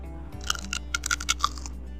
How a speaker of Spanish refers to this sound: Me confirman los de audio, por favor, si se escucha el crunch del, del chicharrón el momento en el que le muerda. Tiene que salir, claro.